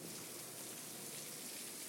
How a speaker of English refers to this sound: This is rain.